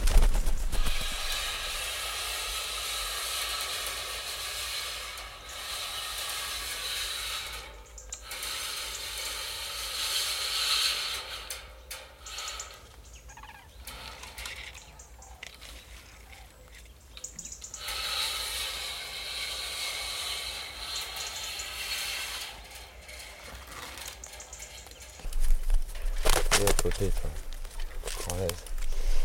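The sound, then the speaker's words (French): A flock of wood pigeons sweeps past in a rushing, whooshing flurry of wingbeats over steady breezy hiss, with several louder bursts as birds pass, the last near the end. “Mais juste là, le bruit que ça fait. C'est magnifique.”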